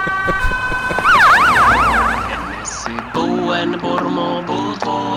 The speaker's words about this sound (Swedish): Kan du sätta på ett larm så får mamma som lyssnar via TVn